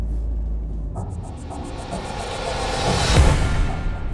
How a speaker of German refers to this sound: So, jetzt sind wir endlich angekommen an der U-Bahn-Station Wittenbergplatz. Und hier geht's jetzt mit der U2 weiter.